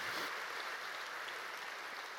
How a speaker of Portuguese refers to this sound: Quem pode dar um aplauso a esse Deus maravilhoso?